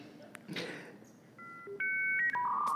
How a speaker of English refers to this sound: That's a, that's a modem, old fashioned sound, if you couldn't figure that out. Yeah, it sounded a lot like that.